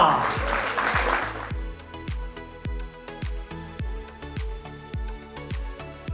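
A short, dense burst of audience applause fills the first second and a half, then gives way to music with a steady, thumping kick-drum beat and crisp hi-hats.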